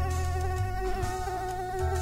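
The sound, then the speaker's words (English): A steady, high-pitched insect buzz, like a mosquito or fly, whines continuously for two seconds, its pitch wavering slightly as the insect hovers. No one speaks. “They eat insects that humans find annoying, like flies and mosquitoes.”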